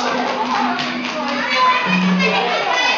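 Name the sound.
audience applause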